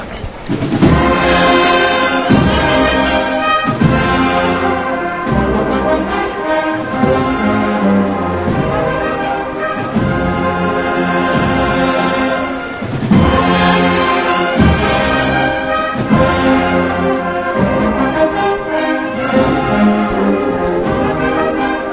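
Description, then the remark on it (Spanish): A processional brass band plays a slow, loud march behind the float of Jesús de la Pasión, with full sustained chords over a steady pulsing beat throughout, and no voices. “Ya está arriba Jesús de la Pasión y suena su banda detrás.”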